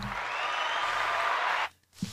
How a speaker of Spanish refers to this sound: Te ganaste un aplauso.